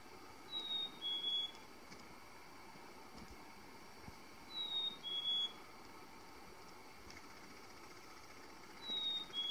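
A chickadee, a small songbird of the tit family, gives its spring mating call: clear, high two-note whistles repeated three times, about four seconds apart, over a steady low rumbling background.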